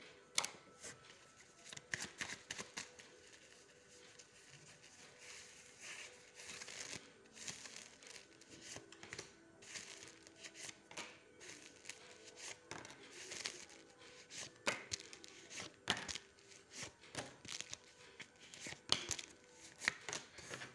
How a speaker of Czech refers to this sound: Eh, já už se dívám na vaše fotky, míchám u toho karty a podíváme se teda spolu, co nám Tarot řekne o tomto partnerském vztahu.